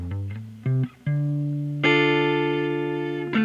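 Loud, distorted electric guitar opens a rock song with a few short choppy chords, then rings out on a long sustained chord before striking again. No vocals or talking.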